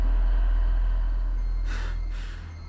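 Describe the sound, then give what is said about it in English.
Two heavy, rasping breaths from someone on the other side of a door arrive close together near the end, set against a constant deep low rumble, with no talking. “I could hear someone breathing on the other side.”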